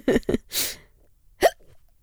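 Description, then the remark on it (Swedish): A few sharp, abrupt hiccups in quick succession, fairly loud, with short breathy gasps between them and a brief pause before the last one. No one speaks. “Jag är helt omtumlad av mina hicks.”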